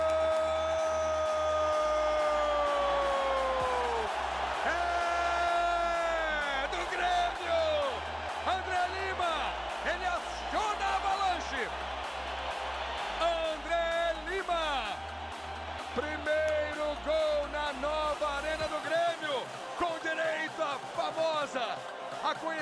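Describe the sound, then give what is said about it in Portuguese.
A loud crowd of Grêmio supporters at the Nova Arena roars and chants, celebrating André Lima's penalty goal, a dense mass of voices rising and falling over a steady, pulsing low beat, sustained for the whole stretch before thinning out near the end. “A torcida do Grêmio aqui na Nova Arena. A cobrança, André Lima! Gol!”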